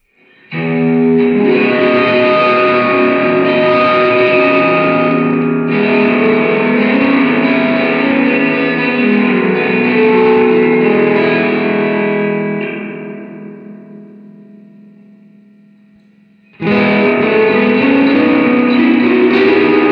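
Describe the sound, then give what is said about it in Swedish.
Heavily overdriven, distorted electric guitar chords, played through a Benson preamp with treble nearly full, bass at middle, drive at three o'clock and distortion, ring out loud and thick, sustaining for several seconds, fading slowly to near silence before another chord crashes back in at full volume. No talking. “full effekt och sen ganska mycket drive och sen tar du kill drive med dist.”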